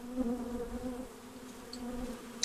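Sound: honey bees buzzing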